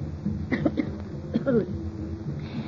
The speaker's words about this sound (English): it's really very seldom that I cough any more like that, but in a little while I'll, I'll be completely well